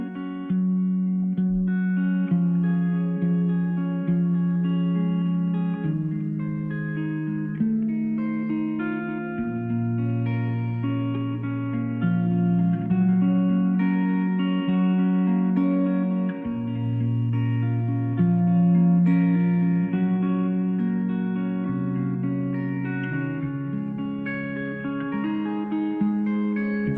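A slow, reverberant electric guitar plays sustained chords and ringing notes at a steady, moderate volume, sounding like a live performance with no voices coming through.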